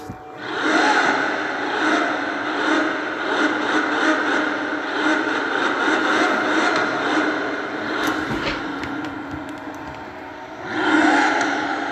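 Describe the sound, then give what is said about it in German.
A sports car engine roars continuously in a tunnel, loud and echoing, its droning note dipping briefly near the end before surging again. No voices. “Also ein Tunnel lasse ich mal ganz kurz alleine mit dem Sound.”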